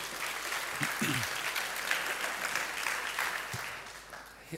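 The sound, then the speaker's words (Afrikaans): Steady applause from an audience for an orchestra, a dense wash of many hands clapping at an even level for several seconds, with a few faint voices mixed in underneath. “Geef hulle 'n lekker hande klap toe.”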